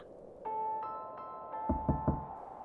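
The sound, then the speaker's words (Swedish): Three soft, quick knocks as someone knocks carefully on a thin, hollow-sounding door, evenly spaced, with a faint steady tone and a few light chiming notes ringing in the background. “Hon knackade försiktigt på stövelns dörr som var så tunn att den vajade med vinden.”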